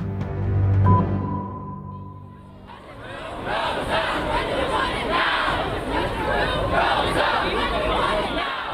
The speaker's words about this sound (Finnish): Glasgown ilmastokokouksen alla eri puolilla Eurooppaa on osoitettu mieltä ja vaadittu valtiolta tiukkoja ilmastotoimia. Tukholmassa ilmastoaktiivien keulakuvaksi nousseen Greta Thunbergin johdolla nuoret vaativat oikeudenmukaisuutta ilmastotoimiin.